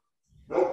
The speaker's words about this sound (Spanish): disculpen mis perros